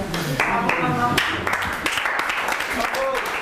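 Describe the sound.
An audience at a meeting of the cercle des rencontres applauds after a woman's monologue, with steady, dense clapping that holds at an even level throughout, while voices sound over the top during the first part.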